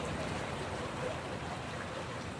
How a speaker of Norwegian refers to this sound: Det er lyden fra gamle Eidi, som en gang i tiden var en eh, veldig viktig eh, strategisk eh, elv, må man nesten si. I hvert fall i helstaten. Ja, den var det. Og dette var jo grenseelva for det tysk-romerske riket.